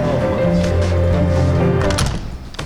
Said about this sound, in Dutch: Deur dicht.